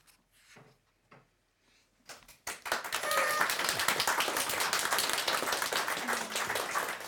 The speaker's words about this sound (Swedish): En applåd, vad fint.